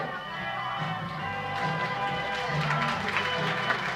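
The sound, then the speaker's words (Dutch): Audience applause at an evening entertainment show in Worksel, a steady, dense wash of many hands clapping, growing fuller and busier after the first second and a half, with a low hum of music or murmur underneath. “Ja, lekker applaus, een de stemming maken vanavond.”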